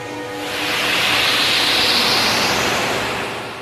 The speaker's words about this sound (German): Hier hört man, wie das klingt, wenn die 20 Motoren gleichzeitig anlaufen.